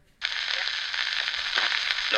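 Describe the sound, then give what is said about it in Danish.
Crackling playback of the first phonograph cylinder kicks in abruptly with dense, thin-sounding surface hiss and crackle that holds steady and fairly loud for a couple of seconds. “Den første valse lyder sådan her.”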